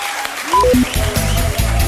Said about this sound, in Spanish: Un aplauso bien fuerte